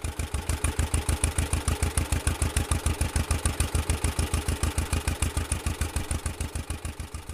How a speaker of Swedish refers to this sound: Som de flesta John Deere-samlare så är det mest de tvåcylindriga traktorerna med sitt typiska ljud som de brinner för och som ju tilltalar så många. Ljudet. Det är hjärtmedicin. Det är dunket ifrån dem.